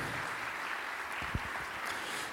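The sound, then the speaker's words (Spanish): An audience applauds for a volunteer who has come up to join the speaker, a steady, dense wash of clapping that holds at an even level throughout, with a brief low thump partway through and no one speaking. “Un aplauso a Dios por este hermano que ya nos está acompañando.”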